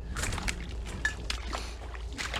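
Wet, squelching footsteps of someone wearing boots slosh through soggy, boggy ground, a few uneven splashy steps with broad watery bursts over a low rumbling background.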